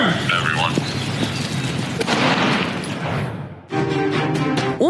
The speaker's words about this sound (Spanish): Finalmente, un disparo con arma de fuego.